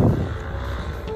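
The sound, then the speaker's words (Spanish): Loud, low engine roar of motorcycles passing by, a steady rumbling drone that stays strong for the whole brief moment, with no one talking over it. “son unas motos de que ibas Es el ruido, quería mostrarles qué es lo que hace tanto ruido.”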